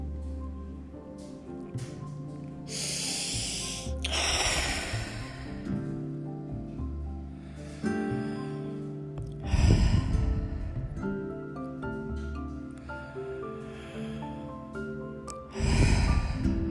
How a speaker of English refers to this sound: We're going to still ourselves, sitting straight, quieting our minds with about three good, long breaths.